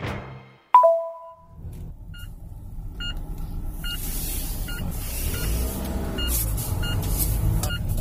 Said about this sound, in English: Let me just do up my seatbelt so uh, that beeping stops.